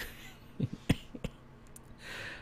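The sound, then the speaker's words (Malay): A few short, quiet coughs come in quick succession, dry little bursts, followed by a faint breathy hiss and then quiet. “ada terbatuk. Ah, orang cakap bohong so batuk.”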